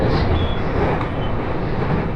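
Steady interior rumble of a five-car Joban Line train in Japan in motion between Sendai and Hamayoshida, a dense, continuous roar of wheels and running noise at an even, fairly loud level with no voices.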